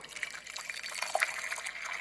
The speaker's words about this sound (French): En vent le bras, succès l'épaule, il remplit nos mugs. Lentement.